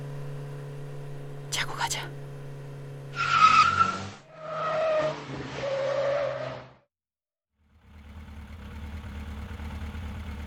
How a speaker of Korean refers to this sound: 노면 위에 횡단보도 표시에서 뒷바퀴가 밀리자 머리가 쭈뼛서고 심장이 쿵 하고 내려앉는다.